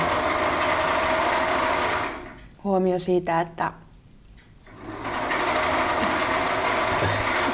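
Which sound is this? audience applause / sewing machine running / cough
sewing machine running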